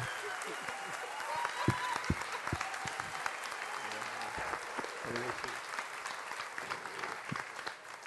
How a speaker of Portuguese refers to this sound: E se você concorda com isso, aplauda o Senhor!